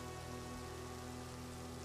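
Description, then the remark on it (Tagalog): Heavy rain pours down steadily, a dense, continuous hiss of drops drumming on a surface, unbroken, with no voices. “Lumakas lalo ang ulan.”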